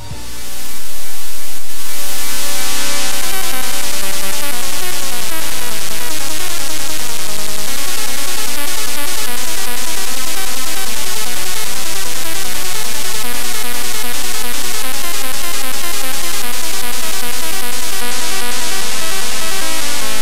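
Buzzy one-bit ZX Spectrum beeper chiptune plays loud and continuous for the whole stretch, with rapid arpeggiated notes and a driving rhythmic pulse, and no voices.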